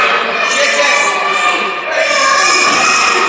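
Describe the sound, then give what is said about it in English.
A loud live crowd in Towanda, after the intermission at a ring event, cheers and shouts in a dense, continuous roar of many voices, with a brief dip partway through before the noise swells again. “just so the crowd doesn't uh, drown us out tonight. They are loud here in Towanda.”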